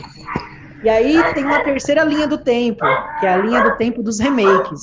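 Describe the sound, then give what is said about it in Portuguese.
A dog barks in the background, its short yaps partly buried under a man talking steadily throughout. “tem um cachorro latindo aí, cuidado que o Michael mata cachorro”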